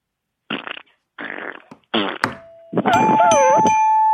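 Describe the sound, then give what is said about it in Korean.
A series of mouth-made fart noises imitating a fart leaking out: three short buzzy raspberries, then a longer squeaky, wavering one that rises and warbles in pitch, all loud and with no talking. “자, 방 방구 소리 한번 들어볼게요. 예, 입으로 하는 거죠?”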